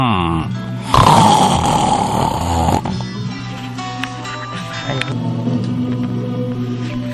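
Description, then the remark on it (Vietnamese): Loud, drunken snoring of a man who has drunk seven or eight cups of wine and lies reclined on a chair: a heavy, rasping snore bursts out, then settles into a lower, droning rumble that keeps going for several seconds. “lãm nhảm đáp vài tiếng rồi ngáy trở lại như sống như rống.”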